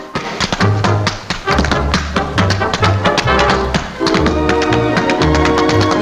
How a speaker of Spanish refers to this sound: ¿Qué me dicen de unas teclas que pudieran ser pies? Las teclas de una máquina de escribir también sonaron a claqué.